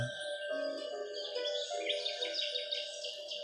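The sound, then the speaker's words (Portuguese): Birds sing steadily throughout, a busy layer of bright chirps and warbling trills over a soft continuous ambient hum, moderately loud with no voices present. “Imagine um lindo céu azul e à medida que você ouve os pássaros cantar, imagine o cheiro da grama molhada”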